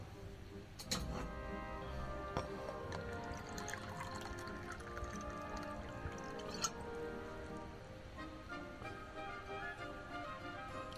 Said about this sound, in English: I need a drink of water. Wait a minute. Maybe I could pronounce it after I have a drink of water.